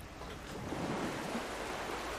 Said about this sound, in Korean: 어? 어 이거 파도 소리죠? 어, 저기 바다다. 진짜 바다다.